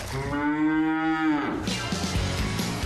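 A single long, loud cow moo, a steady low harmonic bellow lasting over a second, followed by a jumble of softer background noise.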